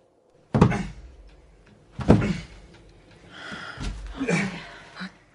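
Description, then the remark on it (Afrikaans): A heavy door thuds twice as it is shoved against something heavy that has fallen on top of the doors and cannot be lifted, followed by straining, scraping effort and muffled rattling; fairly loud, no talking. “iets swaars het bo op die deure geval. Ek kry dit nie opgelig nie.”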